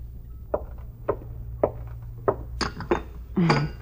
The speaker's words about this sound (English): was just getting the cups ready.